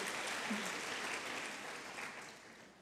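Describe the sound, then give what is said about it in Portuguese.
An audience claps and applauds for Jesus, a dense crackling wash of many hands that holds fairly even and then eases off slightly toward the end. “Se for para Jesus, aplauda Ele.”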